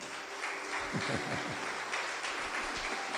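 An audience applauds, a steady wash of many hands clapping at once that holds evenly for a few seconds with no voices standing out.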